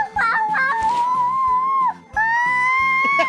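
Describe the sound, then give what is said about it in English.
A baby girl lets out two long, shrill, high-pitched screams for no apparent reason, each held steadily with a brief pause between them, loud and piercing. “But now she is into screaming for no apparent reason.”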